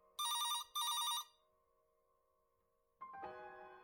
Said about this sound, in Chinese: 可是，只有我知道，昨天晚上不是梦，那的确是地狱传来的铃声。